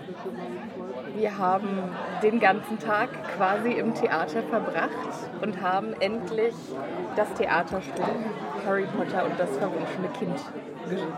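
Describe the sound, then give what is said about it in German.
A steady hum of many overlapping voices fills a busy, pub-like hotel bar where people have after-work drinks, with one person speaking clearly over the continuous background chatter. “Genau, und jetzt befinden wir uns in einer kneipenartigen Atmosphäre hier auf, in der Hotelbar.”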